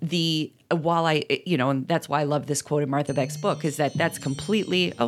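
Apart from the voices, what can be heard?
alarm going off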